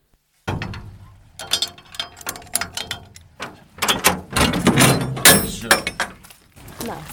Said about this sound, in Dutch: Er staat een container op de bodem van de steengroeven van Winterswijk en die wordt speciaal voor ons geopend.